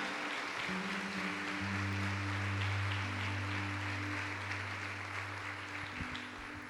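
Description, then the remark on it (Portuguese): A church audience claps steadily for several seconds to applaud the Lord, a dense wash of applause over low, sustained keyboard chords that hold and shift beneath it before the clapping tapers slightly at the end. “Aplauda o Senhor, porque ele olha”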